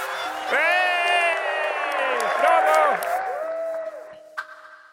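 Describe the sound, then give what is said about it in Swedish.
A large cinema audience at a screening of Triangle of Sadness, directed by Ruben Östlund to act out its feelings, screams and cheers all at once. It is a dense wall of high, overlapping voices and whoops that holds loudly for several seconds before trailing off. “När jag höjer lite mer, då reagerar ni ännu starkare. Och när jag liksom sista här uppe, då, då, då ska ni skrika rakt ut.”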